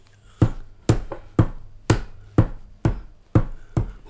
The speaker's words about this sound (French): prenez les pas, vous les frappez des mains, et vous avez la pulsation du chant qui va avec. Mm. C'est normal, c'est logique, parce que pour danser ensemble, il faut, il faut que ce soit synchrone.